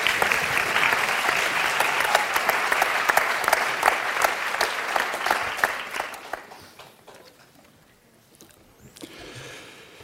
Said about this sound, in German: Applaus